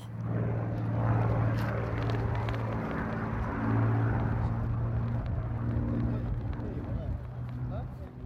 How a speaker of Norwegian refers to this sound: Lyden av seier, sa britene når de hørte dette under annen verdenskrig. Det legendariske jagerflyet Spitfire med sin V12 Rolls-Royce Merlin-motor.